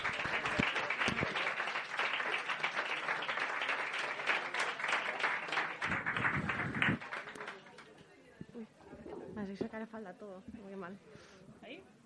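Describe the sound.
An audience claps steadily in a dense, bright patter for about seven seconds as the next participant is called up to read. The applause then fades out and a single voice starts speaking over faint remaining claps.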